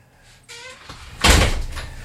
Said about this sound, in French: Alors ah on a frappé à ma porte.